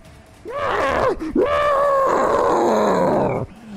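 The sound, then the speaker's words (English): A voice imitates an ice troll screaming in pain as fire encircles it: a short guttural roar, then a longer, loud, wavering howl that trails off, alone without other talk. “It screams in pain, fire encircling all around it.”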